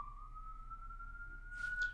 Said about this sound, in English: hold for ambulance. Yeah, that's actually uh, sound that Zach is putting in in post.